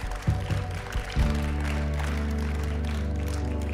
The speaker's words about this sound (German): Lass uns doch an diesem Moment zu Hause, auch hier im Raum, in den Räumen, wo wir sind, diesem Jesus einen kurzen, aber heftigen Applaus geben, dass er als Gott Mensch wurde und in unser Leben hineinkam.